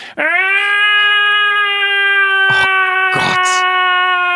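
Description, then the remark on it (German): A person imitates the cry of a tomcat being castrated: one long, loud, sustained wail, steady in pitch and strongly harmonic, with a few brief breathy bursts near the end. “Und während man das bei den Katern macht, deswegen sind die so angebunden, in Vollnarkose, machen die wirklich so”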